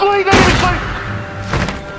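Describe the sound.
Two heavy, blunt thuds of a pistol striking two men's heads land loud about a second apart, with a brief tonal hum before the first blow and muffled voices underneath.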